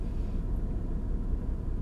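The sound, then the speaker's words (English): A parked car's engine idles with a steady, low rumble, fairly loud, holding an even drone throughout with no other sounds and no talking. “Yeah, that's not even the air, that's literally just the car.”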